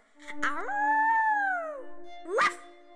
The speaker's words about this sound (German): Und als die Sterne wieder weg waren, war die Pfote verheilt. Der Hund jaulte glücklich auf